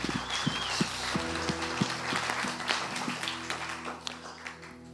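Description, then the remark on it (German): An audience applauds a worship band steadily throughout, a dense wash of many hands clapping at moderate loudness, with a faint low sustained tone lingering underneath. “Hey, lass unserem Worship Band heute mal Applaus geben.”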